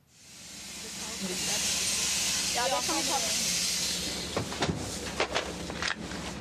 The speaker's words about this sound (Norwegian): En buss stopper i Balestrand